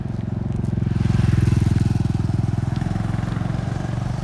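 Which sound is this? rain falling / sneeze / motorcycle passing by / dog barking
motorcycle passing by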